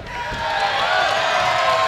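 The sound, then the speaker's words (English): A large crowd cheers loudly and steadily after a fallaway slam, a dense roar of many overlapping voices holding at full strength for about two seconds. “Don't cheer this.”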